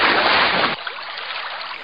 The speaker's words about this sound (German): Ich werd hin, wann ich will, und hat ihn angepisst von oben bis unten, dass er hingeworden ist.